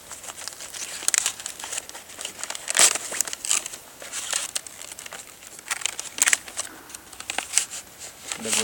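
Continuous crinkling and rustling of wrapping paper as a Christmas gift from the parents' committee is torn open, with several sharper ripping bursts scattered through the steady crackle.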